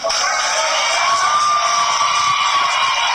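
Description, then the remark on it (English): A crowd cheers and shouts continuously at a school board meeting during public comment, for a speaker whose time has run out, a loud, dense wall of voices with whoops rising above the steady roar throughout. “The cheering continues, and then the school board says, you know what?”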